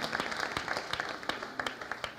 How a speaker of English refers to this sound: Give her a round of applause as we sing together.